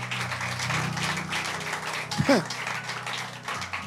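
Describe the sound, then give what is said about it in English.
An audience claps steadily for a man in a dense, continuous patter, mixed with crowd voices and a brief rising vocal whoop partway through. “Clap for this man.”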